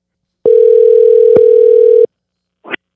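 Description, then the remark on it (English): A telephone dial tone, heard while placing a phone call, hums steadily for about a second and a half, bracketed by sharp clicks, then cuts off, followed by a brief soft rustle. No one speaks. “so let's get him on the phone here.”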